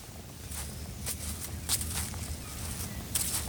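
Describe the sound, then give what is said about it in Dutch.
Footsteps crunch along an outdoor path in a cemetery at an unhurried, slightly uneven pace, walking to the grave of Georg Kwas, row 10, grave 244, over a steady low rumble of wind or traffic. Nobody speaks. “lopen we nu naar het graf van Georg Kwas.”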